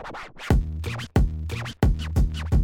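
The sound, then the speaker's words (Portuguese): A small aluminum can rattles and clanks in a series of four or five loud, evenly spaced bursts, each ringing briefly with a tinny, scraping tone. No one speaks. “Barulho de latinha!”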